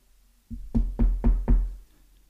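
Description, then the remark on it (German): Someone knocks five times, firmly, on a wooden door in a shared flat, in a steady, even rhythm, fairly loud, with no voices. “Stina klopft an der Tür.”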